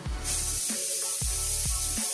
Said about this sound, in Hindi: एक सीटी बस काफी है और फिर कुकर को ठंडा होने दे